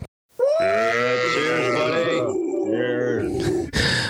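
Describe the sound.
A small group of voices cheers, whoops and hollers together in a loud, sustained burst lasting a few seconds, slightly compressed as if coming through a video call, giving a departing member of the Thirsty Thursday group a send-off.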